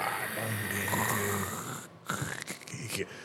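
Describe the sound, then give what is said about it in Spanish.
A voice imitates a heavy rock, placed against a door to keep it shut, dragging across the floor with a long, low, rough grinding rumble, steady, followed by a few shorter scraping bursts. “Entonces a veces yo estando abajo escuchaba cómo se movía la puerta, la, roca se arrastraba así por el piso.”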